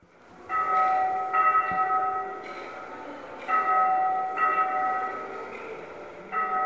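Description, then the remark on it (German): Church bells ring loudly and steadily, played over ceiling loudspeakers in a leprosy museum, with fresh strikes arriving every second or so and their long, overlapping tones humming together without pause. “Als erstes sind Kirchenglocken zu hören.”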